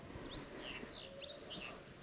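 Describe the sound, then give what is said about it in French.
A house bunting calls in Mauritania in a quick run of short, sweeping chirps, fairly faint, over a steady hiss of rustling background noise. “Bruant du Sahara”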